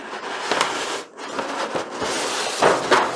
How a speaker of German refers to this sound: Du hörst dieses Geräusch, wo ich das Papier entrolle. Für alle, die sich schon gewundert haben.